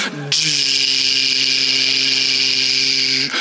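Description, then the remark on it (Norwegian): A voice imitates a motorized door grinding slowly open after a button is pressed, the door taking a long time to rise and not locking until fully open: a steady, hissy mechanical whir with a low hum underneath, held evenly for about three seconds before cutting off. “Fordi den døra den bruker god tid på å komme seg opp, og den har ikke lyst til å lokke seg før den er på en måte helt åpen.”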